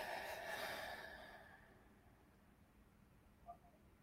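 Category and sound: human body sound, deep exhale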